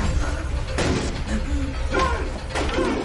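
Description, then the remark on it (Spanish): A blind man bangs on a running washing machine: three heavy, resonant blows at uneven intervals, ringing out over a steady low rumble of the machine. “Alex se aparta y el hombre golpea la lavadora.”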